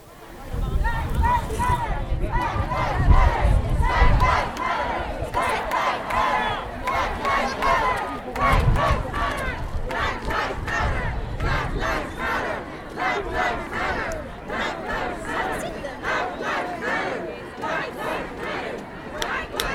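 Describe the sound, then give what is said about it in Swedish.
A large crowd, many of them young people, chants and shouts in unison at a demonstration, loud and sustained, with rhythmic bursts of voices rising and falling against a constant roar of many people outdoors. “Den var ju inte en tyst manifestation då.”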